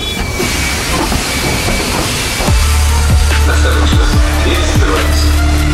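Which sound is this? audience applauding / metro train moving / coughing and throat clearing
metro train moving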